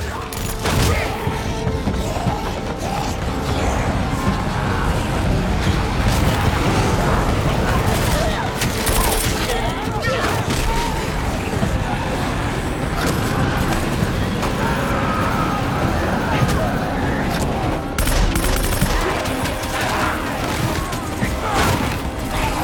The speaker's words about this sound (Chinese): 小黑妹放出了无人机，不分敌我的扫射。